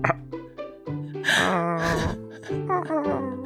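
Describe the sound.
A person imitates a cat, producing a run of several drawn-out 'nya' meow-like vocal calls with rising and falling pitch, moderately loud and delivered one after another without words.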